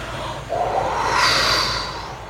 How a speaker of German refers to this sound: Kriech noch ein bisschen tiefer unter die Decke und ich höre, wie der Wind rauscht